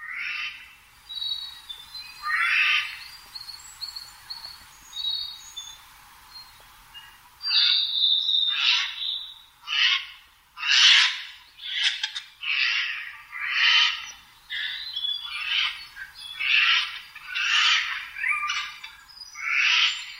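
Eurasian jay calls: softer whistled and chattering notes at first, then a steady run of loud, harsh, rasping squawks repeated roughly every second, with no voices.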